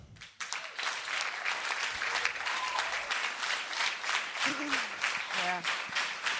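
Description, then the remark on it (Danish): A crowd applauds steadily, many hands clapping in a dense, continuous patter that holds at an even loudness for several seconds, with faint voices and a brief cheer mixed in; a big round of applause given as thanks. “Og det er et stort forbillede, og det vil vi gerne takke jer for, og give jer en kæmpe klap for det.”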